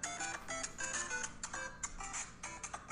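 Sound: mobile phone ringing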